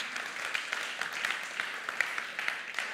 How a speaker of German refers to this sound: Klasse, dass ihr hier seid. Genau, man darf gerne klatschen.